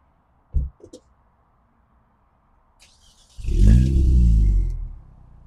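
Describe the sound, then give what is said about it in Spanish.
A couple of sharp clicks, then a four-cylinder sports car engine cranks and catches with a loud, deep roar, settling into a rumbling idle; the car is started for a sound test. “quiero que por favor le hagamos una prueba de sonido al coche. Vale, ¿lo arranco?”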